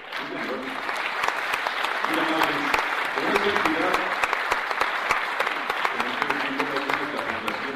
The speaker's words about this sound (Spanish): Pero creo que programas como estos, se están rescatando los valores, los valores de nuestra Ecuador. Así es. Y, pues, realmente se merece un aplauso.